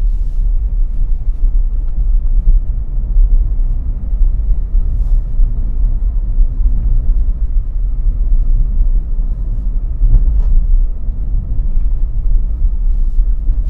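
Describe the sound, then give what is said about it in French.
Steady, low road rumble from inside an electric car driving through town at 30 km/h, a continuous hum with faint clicks and bumps now and then and no talking. “Voilà, je vous laisse un petit peu écouter le bruit du moteur, comme on dit.”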